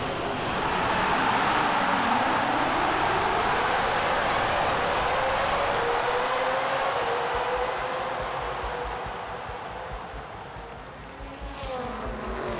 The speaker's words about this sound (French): Soudain, le top départ est lancé. Les 20 voitures de course s'élancent alors à pleine vitesse sous un tonnerre d'applaudissements et de bruits de moteurs.